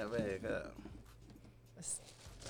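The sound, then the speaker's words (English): Tissue paper crinkles and rustles inside a gift bag as the bag is opened, in a few short bursts, with a brief voice sounding at the start. “that's the that's the paper in the bag. You gotta put paper in there.”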